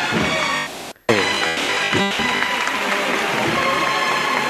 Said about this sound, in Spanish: Mira, qué bonito. La gente aplaudiendo.